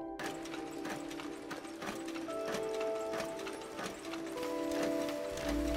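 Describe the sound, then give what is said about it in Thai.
Printing press machinery at a print shop in Gaza runs steadily at full capacity on battery and generator power. A rhythmic mechanical clacking repeats a few times per second over a constant motor hum. It is fairly loud, with no voices. “เครื่องสักของโรงพิมพ์แห่งนี้กำลังเดินเครื่องเต็มสูบด้วยพลังงานจากแบตเตอรี่และเครื่องปั่นไฟ”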